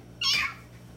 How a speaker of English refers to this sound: she said meow meow meow meow meow meow meow meow meow.